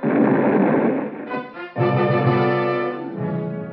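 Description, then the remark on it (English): A loud bomb blast bursts out at once as a house door is opened, followed by a few seconds of roaring, ringing rumble that slowly tapers off. No voices. “It didn't do much damage to the house, but all the king's horses and all the king's men couldn't put Roscoe Manning back together again.”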